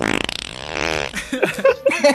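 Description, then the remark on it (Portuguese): A voice imitates a loud, buzzy fart with a long raspy blast, then trails off into a few short sputtering bursts, with no other talking. “Eu só abaixei só a peidei.”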